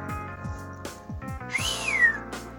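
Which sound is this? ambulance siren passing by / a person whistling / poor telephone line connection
a person whistling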